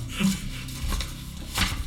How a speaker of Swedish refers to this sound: Ja, jag kan skriva lite här på pappret. Jag tar upp en penna.